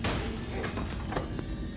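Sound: door being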